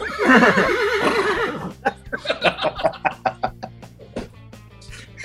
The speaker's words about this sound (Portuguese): aí é era um cavalo relinchando